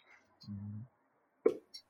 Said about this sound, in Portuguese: Achei até que você tinha tido um soluço, alguma coisa aí, é. dado uma gaguejada, mas em momento nenhum achei que você ia testar os Bengals.